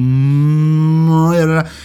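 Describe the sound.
A single long, loud cow moo, low and steady before rising and tightening toward the end, then cutting off abruptly. No other sounds or voices accompany it.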